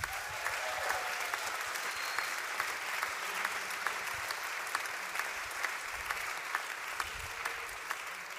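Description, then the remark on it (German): Sustained applause from an audience at a Hamburg-Projekt gathering, a dense, steady wash of many hands clapping with occasional sharper claps standing out, continuing evenly for several seconds with no one speaking. “Ein Applaus für”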